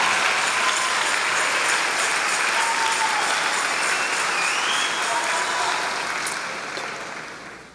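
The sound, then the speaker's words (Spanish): An audience applauds in praise to Jehovah of hosts in a dense, steady wash of clapping that holds loud for several seconds, then gradually fades toward the end, with faint voices mixed in. “Dale el aplauso a Jehová de los ejércitos.”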